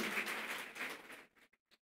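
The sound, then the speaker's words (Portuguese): A church audience applauds Jesus together in a dense wash of clapping that thins out after about a second, leaving a few scattered last claps before it falls silent. “Você pode aplaudir Jesus bem forte, então?”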